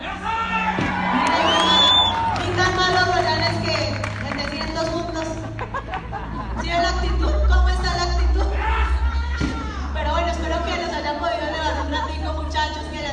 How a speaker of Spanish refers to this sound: Así es, como gritan millonario.